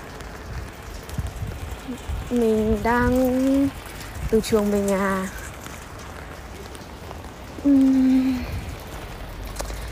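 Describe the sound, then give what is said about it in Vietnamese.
Steady, moderate spring rain patters as a continuous wash of noise out on the street, recorded on a phone, with a person speaking intermittently over it. “Mình đang ở ngoài đường Hôm nay mình cầm cái điện thoại và mình thu luôn ở đây à, Trời đang mưa mọi người ạ Mưa kiểu không phải rất to nhưng mà cũng to ấy ừ, Nói nào nhỉ, nói chung là thế này cũng đã gọi là mưa rồi à, Có lẽ đây là mưa mùa xuân”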